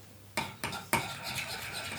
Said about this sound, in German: So, die Kinder bereiten sich hier Joghurt mit eigenen Blaubeeren zu.